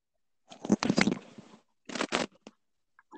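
Harsh, crunchy crackling noise over a call line, one long scratchy burst followed by a shorter cluster and a few faint clicks, with no voices.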